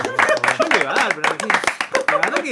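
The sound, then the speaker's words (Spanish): A short burst of clapping at a musicians' day event, a few pairs of hands beating quickly and unevenly, mixed with excited voices cheering over the top for a couple of seconds. “¿Puedo pedir un aplauso para mí?”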